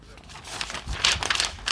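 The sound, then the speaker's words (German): Paper crinkling and rustling in a steady run of crackly bursts, growing a bit louder toward the end, as if a sheet is being handled or crumpled. “Das ist so aus Papier.”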